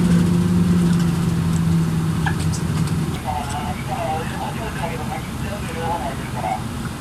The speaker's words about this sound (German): Da ist der nächste Bus. Der Fahrer steuerte den Bus ganz vorsichtig die Serpentinen bis zur Passhöhe hinauf.